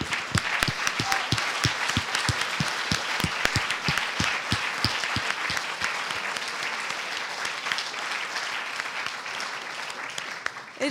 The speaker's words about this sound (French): Avant que vous partiez, on applaudit vite aussi notre régisseur Joël Morand qui nous quitte.